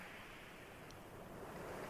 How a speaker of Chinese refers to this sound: 你现在有听到海浪的声音吗？